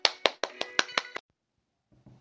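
A short burst of applause welcoming a story-session tutor to analyse a short story: about seven sharp, evenly spaced claps in a steady rhythm lasting just over a second, then silence before a faint voice begins.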